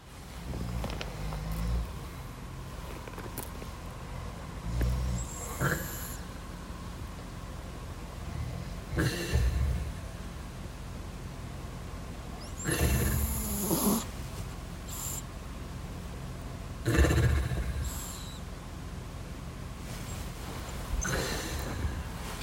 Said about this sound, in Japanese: 我が家の愛犬リリーは最近私たちと一緒に寝ます朝私がちょうど6時に起きたら旦那とリリーが寝息を立てていたので録音しましたピーという音が愛犬リリーの寝息の音ですと。